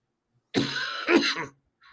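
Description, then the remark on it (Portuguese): A person clears their throat in a rough, gravelly burst lasting about a second, ending in a short cough-like push, followed by a faint trailing breath. “vai contigo que tá me dando vontade de maluco de tossir.”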